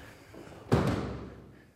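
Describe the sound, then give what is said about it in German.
The heavy green front door of a house shuts with a solid thud and a quick second knock, its low rumble fading over the next second into quiet. “Jetzt gehen wir mal rein in dieses Haus durch die schöne grüne Tür.”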